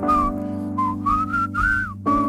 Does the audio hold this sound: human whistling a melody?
yes